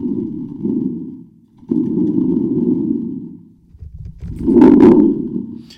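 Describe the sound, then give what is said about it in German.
Low, rumbling thunder-like roars in three long swells, the last one loudest with a brief metallic shimmer, from a spring drum played with its spring held fixed on one side; fairly loud, with no talking. “Also klingt es, wenn ich die Spirale auf der einen Seite dann festhalte.”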